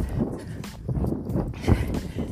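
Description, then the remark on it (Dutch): Steady footfalls of someone running outdoors, thudding roughly twice a second, with heavy breathing and a low rumble of wind buffeting the mic, recorded by the runner while running. “En dat ik nu deze mindset podcast voor jullie opneem. Terwijl ik ren.”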